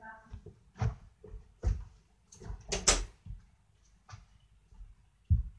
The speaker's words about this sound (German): Ich mach kurz die Tür zu.